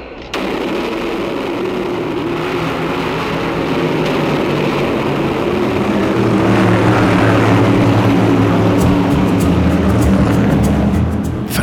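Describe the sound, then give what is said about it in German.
Several vintage racing car engines, about 50 years old, roar loudly at the start on a race track, a dense, continuous rumble that grows heavier and deeper partway through as the cars rev up. “Ich meine tatsächlich, frisches Benzin und verbrannten Gummi zu riechen und dabei die Hitze des Asphalts der Rennstrecke”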